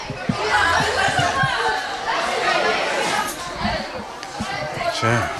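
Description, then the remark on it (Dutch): A busy school canteen where students are eating, full of overlapping chatter, with many voices talking at once, scattered laughter and clattering noise forming a dense, steady hubbub throughout. “Dat was de kantine, wat echt gewoon eh, gezellige rommel hoort te zijn, toch?”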